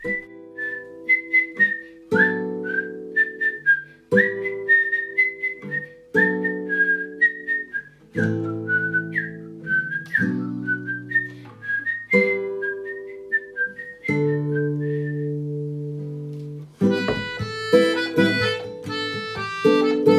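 A clear whistled rendition of a theme melody from the film Kill Bill, short, bouncy phrases riding over a steady, rhythmic accompaniment of low sustained chords, growing brighter and busier near the end; no one speaks.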